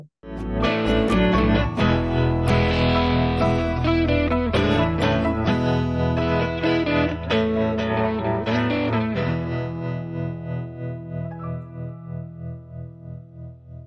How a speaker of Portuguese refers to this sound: E enquanto a gente se prepara aqui, você vai escutar o nosso a nossa vinheta, vai assistir a nossa vinheta.